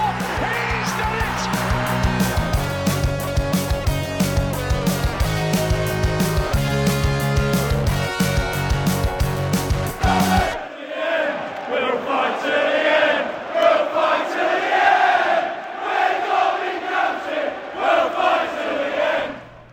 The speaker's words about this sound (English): unmistakable sound of a packed Pride Park in full voice there, defiantly loud, undeniably proud, on an historic day where a whole community came together to march, to sing, to support as Derby County still stare into oblivion.